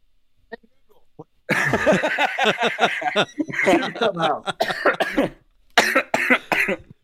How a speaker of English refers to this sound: I went into a coughing fit. I started laughing so hard.